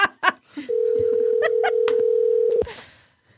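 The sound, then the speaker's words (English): A few quick clicks and beeps of a phone being dialed, then a loud, steady dial tone hums for about two seconds before cutting off abruptly. “Remember, we're calling his girlfriend's phone.”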